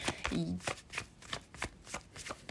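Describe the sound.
Tarot cards being shuffled, a rapid series of crisp, papery riffles and slaps repeating in a steady rhythm, about three per second, with a brief murmur of voice near the start.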